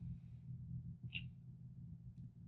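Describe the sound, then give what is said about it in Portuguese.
A bed creaks as it rocks: one short, sharp squeak in the middle and a fainter one near the end, over a low, steady rumble with no voices. “Ah, eu tô balançando a cama.”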